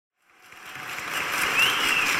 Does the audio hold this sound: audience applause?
yes